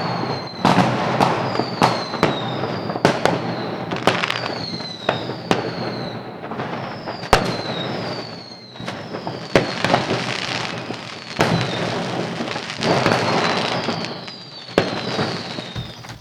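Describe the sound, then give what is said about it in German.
Dense New Year's fireworks: sharp firecracker bangs and rocket pops burst irregularly, with several whistling rockets gliding downward in pitch, over a continuous crackling rumble of celebration. “Wir können ja beide erst noch einmal kurz tief durchatmen und vielleicht die Fenster noch mal ein klein wenig öffnen und dem wunderbaren Klang der Raketen und der Böller lauschen.”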